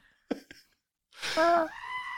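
A screaming goat toy squeezed: two quick plastic clicks, then a loud, raspy bleating scream that holds for about a second before fading. No one talks.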